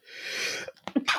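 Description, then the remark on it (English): A single sneeze: a long breathy hiss building for over half a second, then a few short sharp bursts of air and voice as it finishes. “excuse me. Oh, bless you.”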